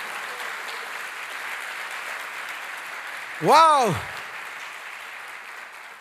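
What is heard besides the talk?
audience applause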